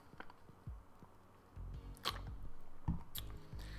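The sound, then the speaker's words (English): Someone sips juice in the quiet, with a few soft slurps and squishy wet bursts, sharp clicks of the cup, and a low rumble underneath. No one speaks. “Hold on, let me take a sip of this juice real quick.”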